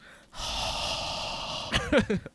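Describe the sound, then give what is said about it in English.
A long, loud rush of hot breath blown right into the microphone as a sound effect, steady and windy for over a second, then cut off by a few short voiced squeaks and huffs. “just my hot breath melting my mic.”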